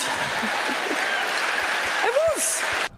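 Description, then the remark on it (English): An audience claps steadily in a dense, continuous wash of applause for about three seconds, with faint murmuring voices underneath, before it cuts off abruptly. “Why are they clapping?”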